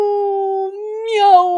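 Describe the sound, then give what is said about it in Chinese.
A voice imitates a tabby cat crying loudly: one long, steady, wailing meow lasting over a second, held at a fairly even pitch that rises slightly and brightens toward the end. “喵，放声大哭起来。”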